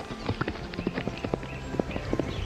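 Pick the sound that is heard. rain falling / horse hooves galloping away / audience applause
horse hooves galloping away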